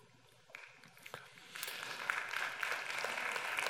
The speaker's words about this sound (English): Wow, this is a great crowd of clappers. Thank you.